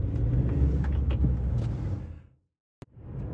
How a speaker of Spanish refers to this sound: Perdonad que vienen coches. Vale, ya puedo seguir.